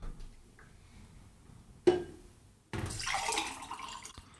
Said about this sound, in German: Wir machen kein Pipi, sondern wir schütten uns gegenseitig Wasser in Gläser. Ja, wir trinken Wasser, tatsächlich.